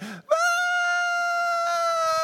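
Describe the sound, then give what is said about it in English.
A person imitates the banshee-like screech a child lost in a store let out: one loud, piercing, high-pitched wail held steady for about two seconds, after a brief low vocal sound. “And so, of course, uh, at that moment, I let out a, a, a screech like a, a, banshee.”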